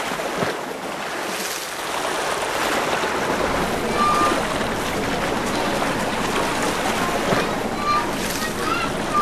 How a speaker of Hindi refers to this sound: थोड़ी ही देर में बहुत तेज तूफान आया और सारी बस्ती को बहा कर ले गया